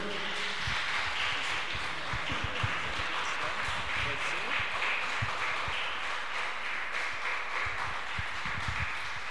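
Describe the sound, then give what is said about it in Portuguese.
An audience applauds the Lord steadily for about nine seconds, a dense, continuous wash of many hands clapping at fairly even loudness, with a few sharper individual claps standing out. “Aplauda o Senhor.”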